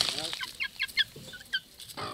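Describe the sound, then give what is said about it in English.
Chickens cluck near a coop on a small farm in Las Marias, a run of short, sharp clucks at an uneven pace, clear over a soft outdoor background with no talking. “He walks past his chicken coop and stops in front of his only orange tree that survived the hurricane.”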